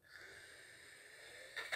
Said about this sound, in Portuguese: Ai, tá sentindo minha respiração? Ela tá, ela tá bem pesada. Eu tô preocupado.